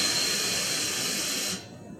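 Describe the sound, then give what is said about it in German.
Steady, loud pneumatic hiss of air being released from an ICE high-speed train's brakes during a brake test, heard in the background, continuous for over a second before cutting off abruptly, leaving a faint low rumble. “So, man hört im Hintergrund die ganze Zeit die Bremsprobe von unserem ICE.”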